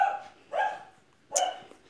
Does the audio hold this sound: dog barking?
yes